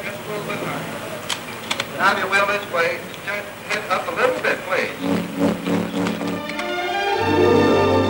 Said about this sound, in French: On entend la petite sirène de bateau. On entendait les annonces dans le port de New York et ce sont des sons véridiques.